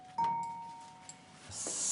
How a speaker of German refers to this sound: Man kann Trambahnwagen auch an Glocken erkennen. Das war eine Glocke für einen Bahnübergang.